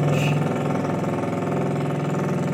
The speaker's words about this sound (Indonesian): Anjir, suara motor lewat lagi.